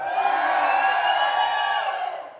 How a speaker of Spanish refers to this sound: A ver, yo quiero escuchar cuántos trajeron su mejor grito de júbilo a la cuenta de tres. ¡Un, dos, tres!